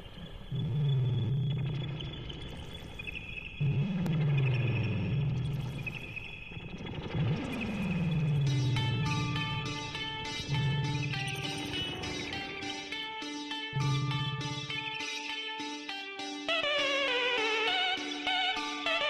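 An indie pop song plays at full volume, with bright synth melodies layered over pulsing low bass notes and busy high-pitched accents building toward the end. No one speaks over it.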